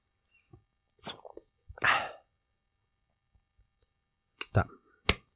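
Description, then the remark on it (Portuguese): Crackling clicks of the cap of a new plastic water bottle twisting open, followed by a short airy hiss and a few sharp plastic snaps. No one speaks. “Então, ouve aí o barulho da minha água abrindo.”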